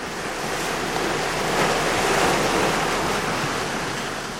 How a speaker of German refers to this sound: Ich stehe am Strand von Village Bay und lausche der Brandung, die die Insulaner jeden Tag im Ohr hatten. Vom Glucksen an Flautentagen bis zum ohrenbetäubenden Tosen bei Orkan.